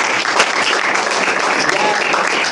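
A crowd applauds steadily, a dense, crackling wash of many hands clapping at once that stays loud and even for the whole stretch.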